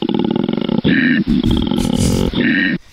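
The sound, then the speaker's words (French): A wild boar grunts loudly and roughly for about three seconds, a deep, rumbling run of snorting grunts with only brief breaks, and no one talking over it. “pas un cochon, un porc. Non. Ça veut dire un sanglier.”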